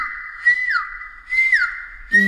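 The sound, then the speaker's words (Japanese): A person blows a whistle (flute) in imitation of a Japanese bush warbler (uguisu): a long steady tone that slides downward, repeated twice, with brief breathy bursts between phrases and no talking. “いいえ、あれは、ウグイスを真似ている”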